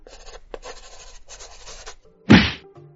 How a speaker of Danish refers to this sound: Eller skrive den på et stykke papir i din pung,